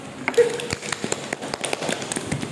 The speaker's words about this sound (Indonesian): Masya Allah, kasih dia tepuk tangan dulu lah.